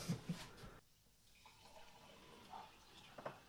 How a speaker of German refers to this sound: Und den würde ich jetzt mal erstmal einschenken. Guter Mann. Nicht geizen, mein Freund. Nicht geizen.